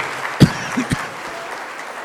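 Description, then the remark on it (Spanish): A few scattered handclaps for the children's participation ring out over a faint background hum, three or four sharp claps in the first second before fading to quiet. The applause is sparse and brief rather than loud or sustained. “Muy bien, un aplauso fuerte que se oiga a la participación de los chicos.”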